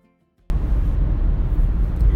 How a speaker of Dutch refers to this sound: Zo, ik zit in de auto van eh, Arnhem naar Amsterdam.